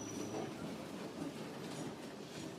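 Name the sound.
tram rolling along rails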